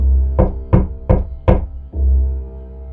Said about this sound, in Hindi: वो पानी की बॉटल नीचे रख ही रहा था कि अचानक उसका गेट नॉक हुआ